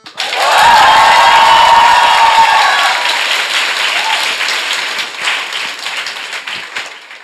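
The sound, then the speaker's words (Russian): A live audience of hundreds at the In Liberty space in Moscow bursts into loud applause and cheering, with whoops and shouts over dense clapping that stays strong for several seconds before slowly thinning out. “И напротив нас сидят сотни человек. Для того, чтобы слушатели подкаста это поняли, издайте, пожалуйста, какой-нибудь звук.”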